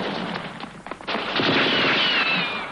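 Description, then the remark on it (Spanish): Goldfinger, wearing a US Army officer's uniform, machine-guns men: rapid bursts of machine gun fire rattle continuously, a dense, loud clatter of sharp reports with a brief lull before the firing resumes more heavily; no one speaks. “Ametralla a los hombres que van a obedecerle.”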